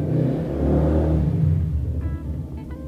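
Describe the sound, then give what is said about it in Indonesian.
A motorcycle engine revs loudly, a deep rumbling growl that swells and then eases off, with a faint higher whine near the end. No one speaks. “Eh, terima kasih sudah mendengarkan suara motor.”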